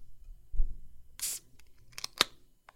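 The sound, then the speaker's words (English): A can of non-alcoholic tropical hazy IPA beer is cracked open: a low bump, a short loud burst of airy fizzing hiss, then a few sharp metallic clicks and a crisp snap. No one speaks. “Nice little sizzle crack right there.”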